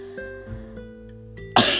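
A single sharp, loud cough bursts out near the end, abrupt, after a stretch of quiet humming tones with no talking.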